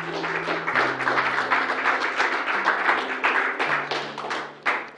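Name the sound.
audience hand clapping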